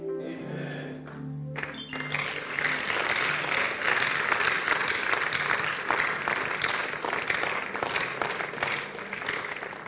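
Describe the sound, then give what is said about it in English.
A crowd breaks into sustained applause after a brief opening with a few voices, the dense clapping steady and fairly loud for most of the ten seconds. “But as if you are clapping, as if you don't want to clap.”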